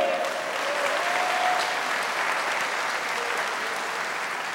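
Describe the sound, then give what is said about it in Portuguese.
A church audience applauds Jesus steadily, a dense wash of many hands clapping at once that holds at a fairly loud, even level throughout, with no voices standing out above it. “Quem acredita que você já está curado em nome de Jesus? Então aplauda Ele.”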